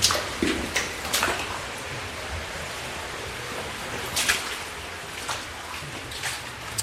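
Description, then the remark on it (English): Steady rushing water flows continuously over rock in a cave, with brief brighter splashes and gurgles breaking through every second or so. The sound is even and moderately loud, and no one speaks. “As the water passes over the rock, it has little eddy currents close by the rock itself, and it starts to erode and starts to dissolve the rock away.”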